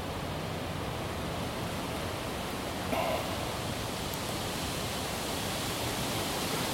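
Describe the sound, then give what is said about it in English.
A steady, full rush of wind blowing outdoors, constant and fairly loud throughout, with a brief swell in the middle and no voices. “I love the sound of the wind.”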